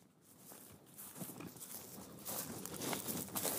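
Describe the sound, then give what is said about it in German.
Footsteps of people walking together from a jetty crunch steadily over dry, gritty lakeshore ground, a series of scratchy steps at an even walking pace, fairly quiet with no talking. “Man hört es eher knirschen als platschen.”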